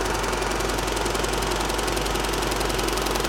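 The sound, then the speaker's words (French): A Matipo film printing machine for positives runs steadily with negatives circulating alongside blank film, a dense continuous mechanical whir with a fine rapid chatter throughout and no voices. “et on laisse circuler les négatifs avec un film vierge pour le noir.”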